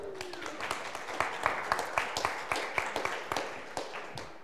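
A crowd claps, a dense patter of many hands with sharper individual claps popping out steadily across the few seconds, at moderate volume with no talking over it.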